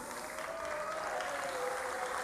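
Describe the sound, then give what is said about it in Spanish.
Audience applause fills the whole stretch at the Festival y Mundial de Tango BA 2021, in a tribute to Diego Maradona: a dense, steady patter of many hands clapping at an even loudness, with no voices standing out above it. “Ese aplauso es para vos, Diego, donde quiera que estés.”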